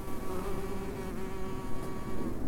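A small mason bee buzzes steadily in flight, going into an insect hotel, a continuous droning hum that wavers slightly in pitch and loudness as it moves about, with no voices.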